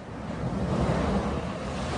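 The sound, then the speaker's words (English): A flamethrower roars steadily while melting snow, a dense, continuous rushing blast that swells slightly in the middle, with no voices present. “Blowing Snow With Flame”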